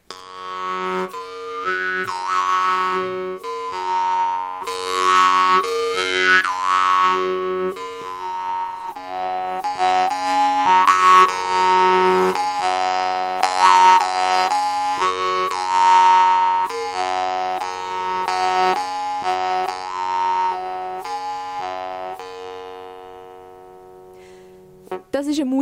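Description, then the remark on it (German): A Ukrainian jaw harp played solo: a steady twanging drone with bright overtones that warble and shift in rhythmic plucked pulses, fairly loud throughout, ending with a few sharp twangs. “Trommeln. Genauer eine ukrainische.”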